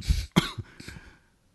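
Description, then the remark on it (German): A pointed, deliberate cough: a short throaty burst followed by a sharper second hack, trailing off into a brief rasp, with no talking around it. “war kein Huster, der aus dem Herzen herauskam, sondern einer, der sehr ernst gemeint sagen sollte”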